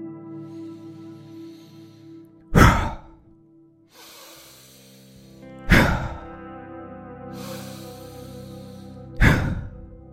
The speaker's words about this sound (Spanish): Vas a inspirar lentamente por la nariz y luego vas a exhalar por la boca de forma rápida y acelerada, soltando los hombros hacia abajo. Vas a acompañar el movimiento de la exhalación con los hombros y vaciando el pecho de esta forma.